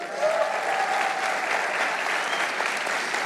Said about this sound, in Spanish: ¿Cuántos este día vienen por primera vez a la iglesia? Mueva la mano. Un aplauso al Señor por ellos.